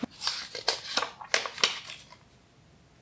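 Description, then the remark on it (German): Crisp paper rustling as the next paper slip is drawn from a pile: a quick series of crinkles and scrapes over about two seconds, then quiet, with no talking. “Lass mal den nächsten ziehen.”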